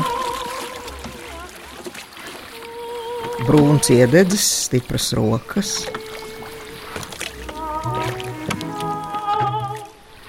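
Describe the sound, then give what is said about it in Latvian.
Oars dip and splash as a boat is rowed through water, with a few louder sloshing strokes in the middle. A voice talks over the rowing throughout. “Palīdzējis meitenēm iekāpt, viņš novelk kreklu, nosviež uz soli laivas priekšgalā un sāk airēt.”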